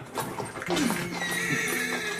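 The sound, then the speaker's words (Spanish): A horse named Fantasma whinnies loudly, a shrill wavering neigh, while hooves clip-clop steadily underneath in a quick rhythm. “No, fantasma no es un caballo de paso fino. Y puede que no sea pura sangre, pero en cambio tiene otras condiciones.”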